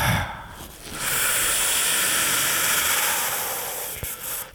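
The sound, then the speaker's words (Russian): A steady, loud rush of a helium and air gas mixture hissing from a valve, released to be breathed in an experiment, starting after a brief pause and continuing for several seconds before tapering slightly, with a faint click near the end. “Этой смесью можно спокойно дышать. Вот я сейчас попробую.”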